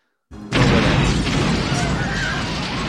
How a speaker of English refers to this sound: This is classic 80s movie. Like, first you have a giant explosion.